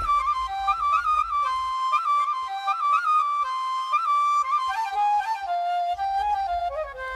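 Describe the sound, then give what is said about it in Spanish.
A bansuri, a transverse flute of wood, reed or cane used in Indian classical music, plays a flowing, breathy melody of sustained, gliding notes, clear, with a soft low drone beneath at the start and end. No one speaks. “es la flauta bansuri, que también es una flauta traversa, pero es de madera, de junco, eh, de eh, caña, ¿verdad?”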